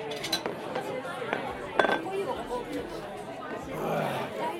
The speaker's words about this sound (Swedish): Ja, men då säger vi skål och välkomna.